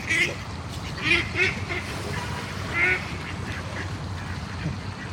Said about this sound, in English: that was crazy. that's a bird.